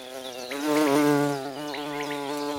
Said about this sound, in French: Bombus terrestris est ce gros bourdon noir avec des bandes orange et un cul blanc. C'est un apidé de la même famille que les abeilles à miel. Ce bourdon très commun vit en colonie